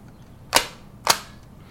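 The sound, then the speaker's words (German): A stapler snaps down twice on paper, two sharp, crisp clacks about half a second apart with brief tails, standing alone against a quiet background. “Heftklammer.”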